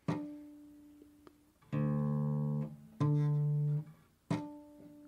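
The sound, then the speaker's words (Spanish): Plucked guitar string notes ring out one after another, some short and some sustained, each with a bright attack and clear harmonic tone, played with a finger at the 12th fret, the halfway point of the string, played alone with no talking. “Pero si tú pones el dedo aquí en el traste 12, viene siendo la mitad de la cuerda, tanto de este lado como de este lado.”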